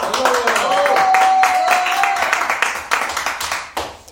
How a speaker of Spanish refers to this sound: Aplausos a Patricio.